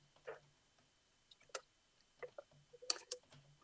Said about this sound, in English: So let me get a little water here.